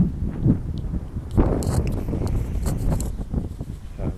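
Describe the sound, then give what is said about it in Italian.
Wind buffets the microphone in a steady low rumble, with gusts swelling and fading and a few brief rustling bumps, fairly loud throughout with no voices. “vento ancora.”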